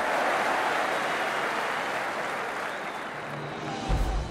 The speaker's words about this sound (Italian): Davanti ad Adolf Hitler seduto in tribuna e alla folla in tripudio, il 3 agosto 1936 trionfa nella finale dei 100 metri.